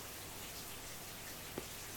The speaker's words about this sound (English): The only reply was the continued downpour. It was somehow less comforting than silence.